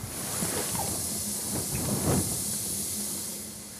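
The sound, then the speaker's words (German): A steady, loud rush of hissing air as an aircraft door opens automatically and its evacuation slide inflates, going on the whole time with a few soft knocks and pops underneath and no one speaking. “Ja, Tür öffnet sich automatisch und die Rutsche lässt sich jetzt auf.”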